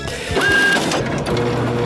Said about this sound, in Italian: Aspetta, stampante.